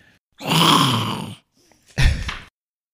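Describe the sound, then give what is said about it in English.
A person imitates a growl: a long, rough, low-pitched rumble lasting about a second, then a shorter second growl after a brief pause. No words are spoken. “That's a good growl.”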